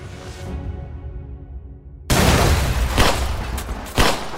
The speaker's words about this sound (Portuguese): Após a explosão, foi possível escutar quatro tiros.